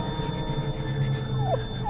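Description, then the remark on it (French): Milou, a freezing dog, whimpers in the snow, giving two short, high-pitched whines that slide downward, heard over a steady low background hum with no one speaking. “Et moi, je vais m'arrêter un instant pour réchauffer ce pauvre chien.”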